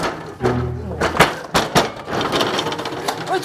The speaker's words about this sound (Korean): 근데 어느 날 갑자기 새벽에 문을 쾅쾅 두드리는 소리가 또 들려옵니다. 근데 이번에는 아랫집이 아니라 순이 씨네 문을 두드리는 소리였어요.